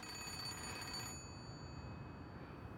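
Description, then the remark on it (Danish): A telephone bell rings in a single rattling burst of about a second, then its metallic tone lingers and fades away. No one speaks. “så kunne telefonen ringe.”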